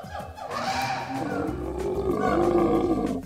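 A big cat roars in a long, deep, rumbling growl that swells and stays loud throughout, with no other voices.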